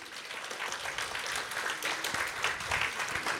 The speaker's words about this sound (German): Also ich heiße auch nochmal ganz, ganz herzlich willkommen in der Stadtbibliothek. Heute zum ersten Poetry Slam zusammen von der EZ Tirol und der Ferrari Schule. Es hat auch auf jeden Fall einen großen Applaus verdient.